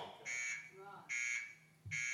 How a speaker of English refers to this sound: That's right. I set that on purpose. What is that? It's an alarm.